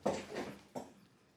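A chair rattles and creaks in two short bursts as someone sits back down properly in it, picked up by a sensitive microphone, the second jolt briefer, then fading into quiet room tone. No one speaks.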